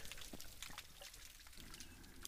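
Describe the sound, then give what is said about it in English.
Dense underwater crackling of mantis shrimp punching and cavitation, recorded from a dock off Catalina Island, California: a constant fizz of sharp clicks and pops like sizzling oil or cereal in milk, steady, with scattered louder snaps and no voices. “recorded what all this punching and cavitation sounds like from a dock off of Catalina Island in California.”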